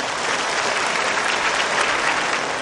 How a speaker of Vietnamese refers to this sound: Xin quý vị hãy dành một tràng pháo tay thật lớn đón mừng nghệ sĩ Phạm Tạ Thanh Tâm.